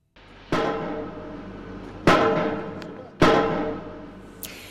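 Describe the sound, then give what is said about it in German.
Construction work at the start of building Germany's first LNG terminal in Wilhelmshaven, early May: three heavy, resonant metallic blows, like pile driving, strike at uneven intervals. Each loud clang rings on and slowly fades over a low rumbling background. No voices are heard. “So klang es Anfang Mai in Wilhelmshaven, als die Bauarbeiten für das erste deutsche LNG-Terminal begannen.”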